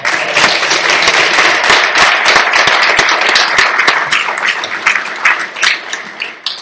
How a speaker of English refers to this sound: Can we give that a, a clap as well?